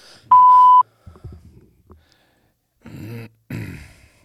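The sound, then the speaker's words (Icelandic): A single steady electronic answering machine beep, a clear mid-pitched tone held for about half a second, followed by indistinct vocal sounds and a couple of louder breathy, grunting bursts. “ja, þegar er... þú heyrir tónin”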